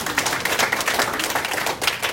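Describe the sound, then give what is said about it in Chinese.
Steady audience applause at a gathering in Taiwan, a dense crackle of many hands clapping at an even level throughout, with no voices rising above it. “我们再次给我们一家人一个热烈的掌声。”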